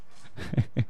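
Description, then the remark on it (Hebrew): A dog makes two short, low whimpering grunts, the second following quickly after the first, with faint gnawing scuffles in between as it struggles with a bone it was thrown, and no one talking. “כן, אנחנו מקליטים פה עם כלב שכאילו נלחם ב...”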